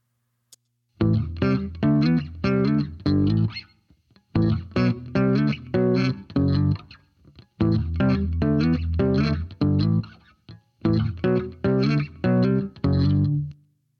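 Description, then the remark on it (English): A funky electric bass line from a slow song at 74 beats per minute plays alone without the slap popping technique, in four repeating phrases, with steady plucked notes, a thick, slightly driven tone, and short gaps between phrases. “Here's the bass part without the popping.”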